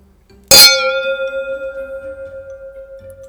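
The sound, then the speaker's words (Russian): A single loud clink of glasses, followed by a clear, pure ringing tone that wavers and slowly fades over a few seconds. No one speaks. “Я просто сейчас представила, что эти бокалы бьются и все льется на наш MacBook.”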